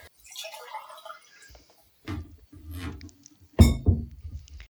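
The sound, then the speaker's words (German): Water trickles and splashes into a drinking glass, followed by a few soft clinks and thuds as the glass is handled and set down. No one speaks. “Ich würde mir noch ganz kurz, sorry, ein Glas Wasser würde ich mir noch.”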